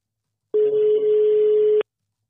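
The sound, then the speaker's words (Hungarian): A single steady ringback tone from an outgoing phone call to an organisation's founder, one sustained mid-pitched beep lasting just over a second, fairly loud and clear with no one talking. “Így van, hívjuk az alapítót”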